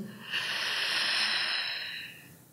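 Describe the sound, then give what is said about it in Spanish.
A single slow, deep breath in a breathing exercise, inhaled through the open mouth and exhaled through the nose, a steady airy hiss like the sea that swells and fades over about two seconds, with no talking. “O sea, inspiras por la boca, y exhalo por mi nariz.”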